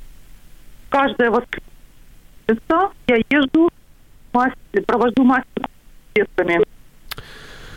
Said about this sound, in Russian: вы знаете, вот так плохо вас слышно, ну просто через слово. Я пытаюсь, пытаюсь просто как, э, как вроде азбуку Морзе слушать и э, понять, что же вы хотите донести.